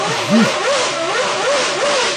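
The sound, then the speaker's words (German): A loud Renault car engine revs over and over, its pitch swinging up and down in a steady wavering pattern over a rough, noisy roar, with no voices. “Deswegen Renault Motor nie, ne?”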